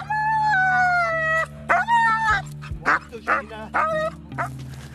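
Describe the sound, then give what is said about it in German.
A search dog howls in long, wavering tones, then breaks into a series of short yelps and whines while being lowered on a rope during a mountain rescue training exercise in Chiemgau, loud over a steady low hum. “Abseilen mit Suchhund.”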